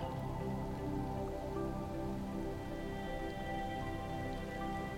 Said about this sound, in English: The raindrops are cool and so refreshing. As those drops meet your skin, you allow your head to fall back.